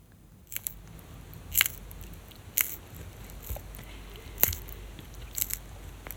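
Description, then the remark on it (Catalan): A pet tortoise crunches on its plate of finely chopped lettuce, apple and cucumber, making a handful of sharp, crisp bites at uneven intervals, fairly quiet against a soft background hiss, with no talking. “I llavors et poses al davant i la sents menjar.”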